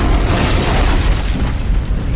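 A door being blasted open: a loud, explosive boom with heavy low-end rumble that carries on for a couple of seconds, no voices.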